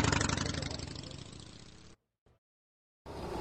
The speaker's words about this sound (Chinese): 有些笨拙地发动了墙角边的一辆摩托车，跨上去后便向远处骑去。